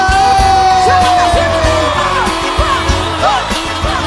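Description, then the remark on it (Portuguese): A loud crowd yells and cheers for about four seconds, a dense continuous roar of voices with a high whooping tone sliding down over thumping beats. “Cadê o grito da galera?”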